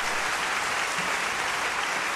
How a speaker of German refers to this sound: Und leise erklang es Ave Maria. frenetischer Beifall ertönte. Das Publikum jauchzte dem zu, der seine blutende Seele in Liebe ihm offenbart hatte.